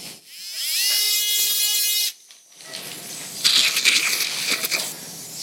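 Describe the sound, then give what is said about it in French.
A powered surgical saw whines up to a steady high-pitched hum, then grinds harshly for a few seconds as it cuts through the neck of the radius bone during radial head prosthesis surgery, loud with no talking. “La recoupe du col se fait à l'aide d'une scie.”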